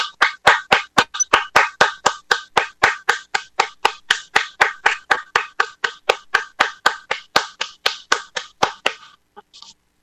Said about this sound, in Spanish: ¡Aplausos, por favor!